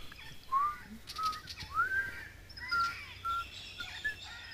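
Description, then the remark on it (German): A series of short, thin whistled notes coming from the cellar of a palace, heard from the marketplace, some flat and some sliding upward, repeating at irregular intervals at moderate volume over a faint, steady background hum. “So, du bist wieder auf dem Marktplatz, hörst eben äh, nochmal dieses äh, Pfeifen aus dem Keller der, ähm, des Palastes.”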